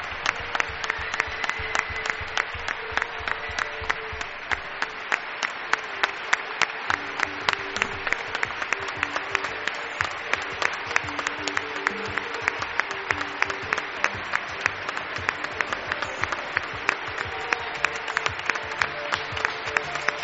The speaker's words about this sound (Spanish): por Milenio 3 y merece nuestro aplauso, nuestro reconocimiento.